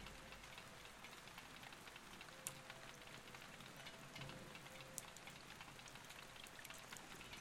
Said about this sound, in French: Il s'est mis à pleuvoir. regarde les gouttes tomber.